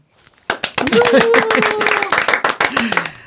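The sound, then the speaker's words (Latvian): Studio audience applause for the winners of a radio quiz game just announced: a loud burst of rapid, uneven clapping that starts abruptly and carries on steadily, with voices calling out and talking over it. “Aplausos studijā!”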